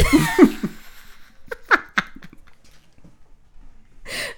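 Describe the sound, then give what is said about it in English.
A voice imitates a car engine that won't turn over or rev up: a strained, wheezy vocal sputter, then a few choppy, rhythmic bursts and a final breathy huff, fairly loud. “like a car is turning over. Well, that won't turn over. That won't rev up.”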